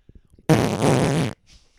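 A single loud, drawn-out raspy fart lasts just under a second, bracketed by faint murmurs and breathy noises before and after.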